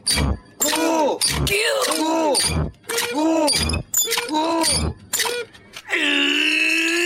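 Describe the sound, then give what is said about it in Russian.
A deliberately awful intro jingle for a live concert program: a harsh, wailing voice sings in choppy bursts punctuated by crashing, clanking hits, ending on a sustained buzzy tone, loud throughout. “Ну, это мы специально сделали эту ужасную заставку, чтобы э, музыканты звучали действительно свежо, Достойно.”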